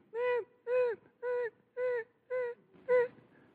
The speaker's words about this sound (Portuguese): São quatro e meia da manhã. Ele vai levantar às seis. Qual é o sentimento dele? Por que, que essa criança está chorando agora? E ele vai em direção àquele bercinho com esse som no ouvido.